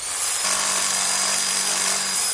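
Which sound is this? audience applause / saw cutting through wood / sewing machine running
saw cutting through wood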